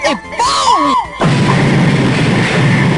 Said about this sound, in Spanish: Es bueno, una explosión chiquitita, pero...